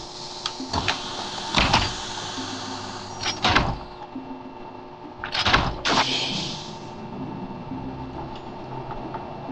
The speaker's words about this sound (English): prepare to unseal door one. Copy that, Director. As soon as that door is open, we move.